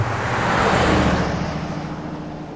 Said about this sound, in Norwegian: Det var derfor han nå satt med ansiktet helt inn til frontruten og kjørte som en villmann mot gården i Nils.